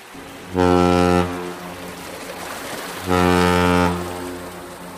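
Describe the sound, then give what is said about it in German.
A ship's horn sounds two long, loud, deep blasts, each under a second, separated by a pause, over a steady low background rumble. “Er bringt ein Schiff zum Meer.”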